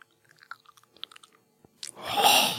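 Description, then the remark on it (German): Wet, close-up mouth noises: a string of small smacking and licking clicks, then a loud, breathy slurping rush right against the microphone. No talking. “Das, was Stimmen so erotisch macht beim Mikrofon, das nennt der Fachmann auch Nahbesprechungseffekt. Das ist, wenn der Mund quasi dem Hörer die Ohrmuschel aus”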